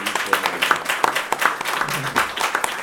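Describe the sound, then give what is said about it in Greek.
Audience applause: a steady, dense wash of many hands clapping for about three seconds, with sharper individual claps popping out irregularly, loud and sustained throughout without talking. “Και να δώσουμε ένα χειροκρότημα σας παρακαλώ για αυτό”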